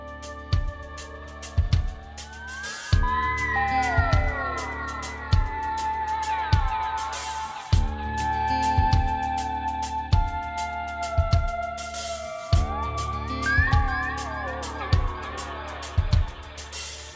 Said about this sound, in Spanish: Estamos escuchando la nueva canción de nuestro amigo, amigo también de la casa, de Radio Colmena.